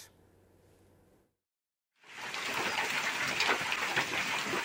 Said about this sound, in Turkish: Şuna bak dolu yağdı dolu. 10 dakika boyunca yağan dolu iki ilçeyi beyaza bürüdü. Meyve ve sebze ağaçlarına zarar verdi. Köyümüze dolu yağdı. Köyümüzdeki e, meyveleri, bağları ve bahçeyi tamamen haşat etti.